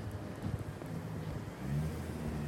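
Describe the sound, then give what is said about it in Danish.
A BMW driven by a man in sunglasses passes by with a low engine rumble and droning hum that swells louder near the end, mixed with steady wind buffeting the microphone; no one speaks. “Det var en mand med solbriller i en BMW.”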